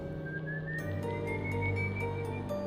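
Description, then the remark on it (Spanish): An eerie, drawn-out whistle of El Silbón, a legendary ghost, slowly rises in pitch over a steady low droning background, with faint regular ticking sounds scattered throughout. “Otras personas dicen que han escuchado su silbido.”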